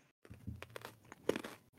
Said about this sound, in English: Crunching on a carrot.